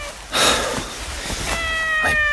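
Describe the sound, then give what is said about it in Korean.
A neutered cat lying on a person's arm meows several times in quick succession, fairly loud, with clear tonal cries stretching across the short clip and no one talking. “나는 달라붙는 고양이를 밀어내고 아내의 허리를 끌어당겼다”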